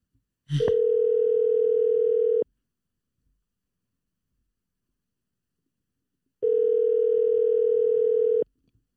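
A telephone ringback tone sounds twice while a call is placed to a friend: two steady, buzzy two-second rings separated by a long silence, clear and fairly loud, with no voices.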